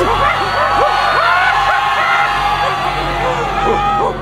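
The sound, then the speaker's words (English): A dense crowd of masqueraders at a ball screams and yells in panic, many overlapping voices shrieking and shouting at once, loud, with no pause through the whole stretch. “Each masquerader thought only of his own safety, but the frightened crowd was far more dangerous than any of these ridiculous tarred and flax buffoons.”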